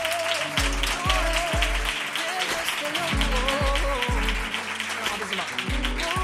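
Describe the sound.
Dense, steady crowd applause for a guest lasts several seconds, with a thumping musical beat and some voices underneath.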